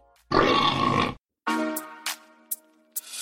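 A loud, rough grunt bursts out, then a brief pause before lower, throatier grunting resumes, broken by a few sharp snorts. Pig-like in character, with no talking.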